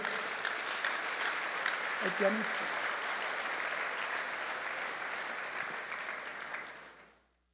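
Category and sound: crowd, audience applauding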